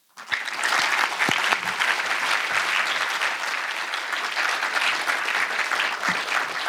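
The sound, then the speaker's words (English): A seminar audience claps steadily for several seconds to welcome Garry Kasparov, a dense, even patter of many hands that starts abruptly and holds at a fairly loud level without fading. “Much welcome, and I suggest we welcome you with a round of applause.”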